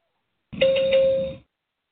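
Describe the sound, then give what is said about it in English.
A single steady electronic warning tone from a debate timer, signalling that a candidate has 20 seconds left to speak, sounds alone for about a second, clear and moderately loud, then stops abruptly, with silence before and after. “When a candidate has 20 seconds to speak, they will hear this sound.”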